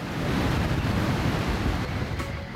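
Strong, steady wind buffets the microphone with loud low rumbling, mixed with the broad hiss of surf washing on a shore, at a city beach by a Beach Club in Leidse Rijn, Utrecht, Netherlands; no one speaks.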